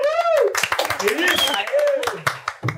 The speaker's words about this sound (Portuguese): Senhoras e senhores, recebam com um grande aplauso os nossos convidados do programa de hoje. Gente, bate palma junto, porque é para vocês.